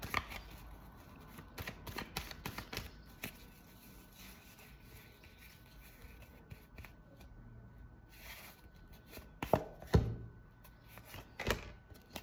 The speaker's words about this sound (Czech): A já už se dívám na vaše fotky, míchám u toho karty a my se spolu podíváme, co nám Tarot poví o tomto partnerství.